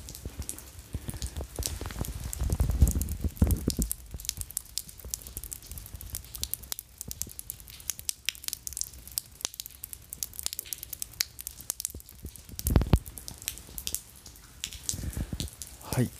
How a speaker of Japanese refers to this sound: 今はですねそこそこ雨降ってます雨の音聞こえますかねえー、問いから流れ落ちる雨の音が、えー、ポタポタ聞こえますでしょうか